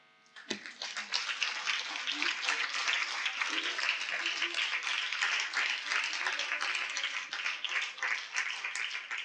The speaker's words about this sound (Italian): Ora però era giusta una pausa qua, secondo me, e finisce così che c'è l'applauso, dopo c'è questa pausa, è tutto calcolata, tutto calcolata